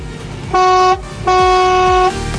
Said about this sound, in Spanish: Y además nos indicaba Vamos, crack, y te mando un bocinazo como siempre.